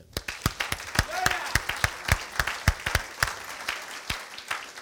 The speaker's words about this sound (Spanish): Y por favor, a la cuenta de tres demos un aplauso. Una, dos, tres.